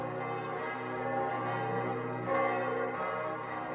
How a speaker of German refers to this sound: Thomas Manns Roman Der Erwählte beginnt mit den Zeilen Glockenschall, Glockenschwall, supra urbem, über der ganzen Stadt, in ihren von Klang überfüllten Lüften. Glocken, Glocken, sie schwingen und schaukeln, wogen und wiegen,